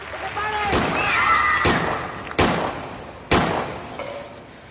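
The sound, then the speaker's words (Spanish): Four sharp, loud gunshots fired into the ceiling ring out at uneven intervals, each leaving a short echoing tail, while a voice shouts briefly near the start. “Tokio dispara al techo.”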